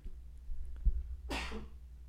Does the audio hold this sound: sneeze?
yes